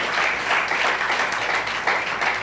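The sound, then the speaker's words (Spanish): A crowd bursts into loud, sustained applause, a dense wash of many hands clapping steadily with no pauses, an audience clapping together as an applause to the Lord. “En un aplauso bien fuerte al Señor.”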